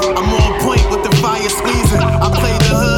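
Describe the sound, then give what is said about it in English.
The tires of a Hellcat car screech and squeal steadily over a heavy, thumping beat, the high whine running loud for the full few seconds without letting up. “Hellcat with the tires screeching.”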